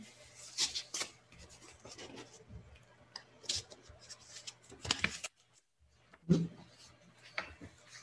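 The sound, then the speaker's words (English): Quiet rustling of paper sheets being shuffled while someone looks for one more piece of paper, with several brief crinkly bursts and scrapes scattered over the stretch and a steady low hum underneath. “I thought I had one more piece of paper, but maybe I don't.”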